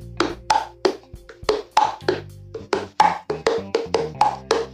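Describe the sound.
A voice imitates a coconut agogô with mouth pops, a steady run of about a dozen hollow, two-pitched knocks alternating high and low, clear with no talking.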